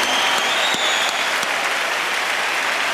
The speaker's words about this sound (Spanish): Con un aplauso de toda la bola de cabrones, claro.